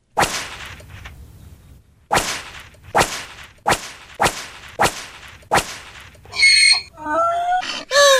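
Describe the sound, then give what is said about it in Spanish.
Seven sharp, loud whip lashes strike a donkey one after another at a steady pace, followed by shrill, warbling wails and cries at the end. “Ay, por favor, no le pegue al burro.”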